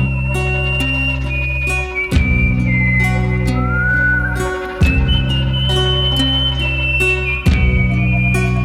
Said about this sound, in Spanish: están los silbidos, pero están ahora en forma de llamado. Entonces se siente como como una canción un poco ritual, como entrando a un ritual.